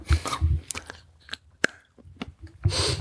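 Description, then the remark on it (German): Crisp snaps of 70-percent dark chocolate being bitten, followed by moist, irregular chewing and crunching, with short sharp clicks between mouthfuls and bursts of breathy noise at the start and end. “Och, dann kann man beiß nochmal rein.”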